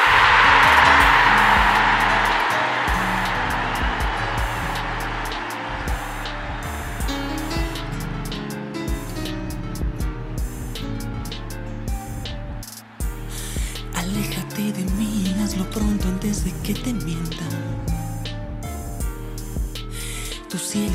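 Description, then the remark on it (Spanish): A song about heartbreak plays at steady volume, opening with a hissing, wave-like wash that fades into a rhythmic instrumental backing with a steady beat and sustained low tones. “Y para eso quiero que escuchemos una canción con referencia a este tema, a, a este duelo amoroso.”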